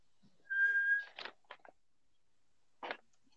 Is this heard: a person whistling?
yes